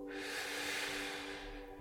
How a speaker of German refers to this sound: Und nun fokussieren wir uns noch einmal auf eine kleine Pranayama-Übung und atmen voll ein. Zuerst in den Bauch, du atmest voll in den Bauch.